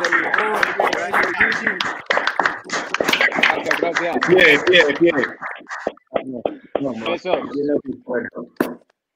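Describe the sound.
A group claps for a participant as a YouTube show ends, in a quick, uneven burst of applause lasting several seconds, mixed with overlapping chatter and voices, then tapering off into scattered talk.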